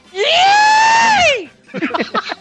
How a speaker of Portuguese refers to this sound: vamos explicar a fonética do, do gritinho do Jim. Coloque um i, acrescente 20 us e finalize com outro i.